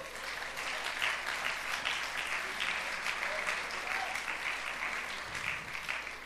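An audience claps steadily for several seconds, a dense, even wash of many hands at a sustained moderate level with no voices standing out.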